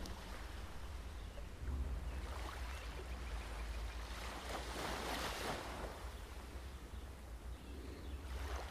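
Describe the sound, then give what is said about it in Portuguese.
Continuous ocean surf washing onto a shore, with broad hissing swells that rise and fall every few seconds over a low, steady rumble. No voices are heard. “Então agora você sai, começa a sair do mar”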